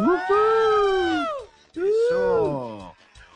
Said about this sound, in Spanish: Ahí nos dice entre paréntesis, aquí cuando es cuando ustedes ponen a las chicas gritando,